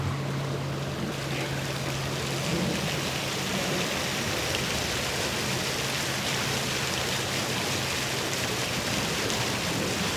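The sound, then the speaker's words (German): A steady, dense hiss of rushing water fills the whole recording, sounding much like heavy rain, with a faint low hum at the start and no voices. “Das ist eigentlich fast wie Regen ein bisschen.”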